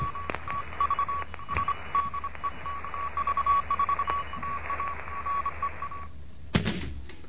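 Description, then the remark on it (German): Morse code beeps from a Morse lesson for beginners: a steady mid-pitched tone keyed into quick runs of short and long pulses over a bed of radio hiss, cutting off near the end with a sharp click. “Hier ist Degout 1 Kilo November mit einem Morseunterricht für Anfänger.”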